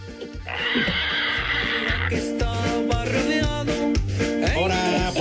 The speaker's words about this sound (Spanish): hasta la chilla el puerco.